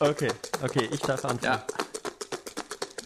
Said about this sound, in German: So, ich würfel jetzt das oh. erste Mal für dich